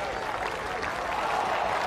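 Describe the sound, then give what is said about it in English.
Steady, dense applause from a large cricket crowd at Hagley Oval as Ross Taylor walks off after being caught out, a continuous wash of clapping with some murmur mixed in, holding at an even level throughout. “It's Ebadot who picks him up, and for the last time in his whites, Ross Taylor will walk off Hagley Oval to a rousing reception from this crowd.”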